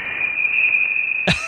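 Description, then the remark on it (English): Voyager's interstellar space sounds: an eerie, steady high-pitched electronic whine holds throughout at moderate loudness, broken by a short crackling burst just before the end. “That's that, interstellar space.”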